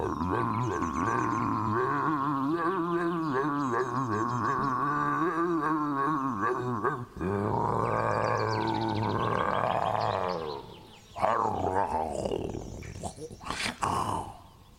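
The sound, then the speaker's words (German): A person imitates a lion's roar with loud, drawn-out growling bellows that waver and rumble for several seconds, followed by shorter, rougher roaring bursts near the end. “Also jetzt muss diese Löwin den brüllenden Löwen doch mal erhören, oder?”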